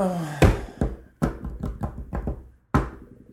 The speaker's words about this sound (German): ja jetzt klopfe ich halt hier so